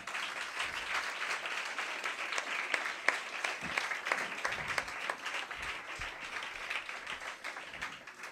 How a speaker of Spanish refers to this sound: Un aplauso, ¿no, compañeros?